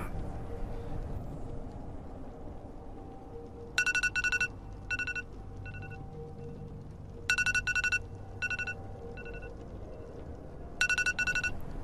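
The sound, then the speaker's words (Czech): An iPhone ringtone rings at 2:30 in the morning in three repeated bursts of bright, rapid marimba-like tones, clear over a low background hum, with pauses between each cycle. “Probudilo mě vyzvánění mého iPhoneu.”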